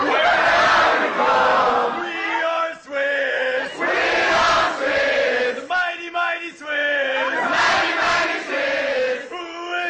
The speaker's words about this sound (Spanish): nos traigo una arenga, un canto motivacional que hizo en la Copa Davis. Federer, este es Federer entonando We Are Swiss, somos suizos, seguido por aficionados y compañeros.